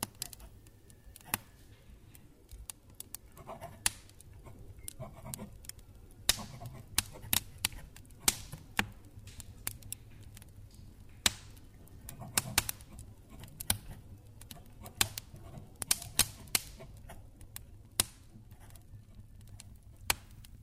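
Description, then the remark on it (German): A fireplace fire crackles steadily, with sharp irregular pops and snaps scattered over a low, soft rumble, while someone writes down thoughts. No one speaks. “Am besten kann er natürlich nachdenken vor einem prasselnden Kaminfeuer und wenn er seine Gedanken aufschreibt.”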